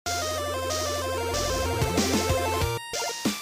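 Busy electronic theme music plays loudly and continuously, layered synth tones and bass notes shifting together, with a brief dropout just before the end. No one speaks.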